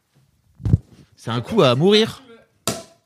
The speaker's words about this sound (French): l'opération longue et compliquée qui consiste à ouvrir une bouteille de champ